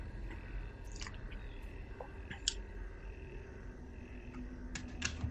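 Scattered, light clicks of someone typing on a computer keyboard, a few keystrokes at a time with short pauses between, over a low steady room hum.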